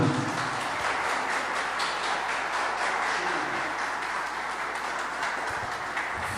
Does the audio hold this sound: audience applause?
yes